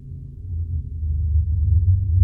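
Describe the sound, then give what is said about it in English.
A loud, deep engine exhaust rumble, low and throaty, swelling steadily as a vehicle draws close and passes, with no one speaking. “Somebody needs to purchase a muffler.”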